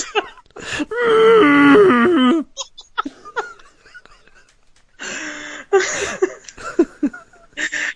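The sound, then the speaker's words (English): A voice imitates Vanessa Redgrave's sex noises in Mission Impossible as muffled, moaning, muzzled-elephant noises in long wavering tones, sustained loudly for a second or two, then breaks into breathy laughter before another shorter imitation near the end. “like Vanessa Redgrave sex noises as elephants that are muzzled.”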